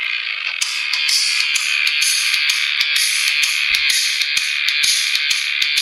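A loud rock song by a European band plays without pause, with dense, gritty guitar-like distortion filling the sound and sharp drum hits landing in a steady, driving rhythm. No one speaks over it.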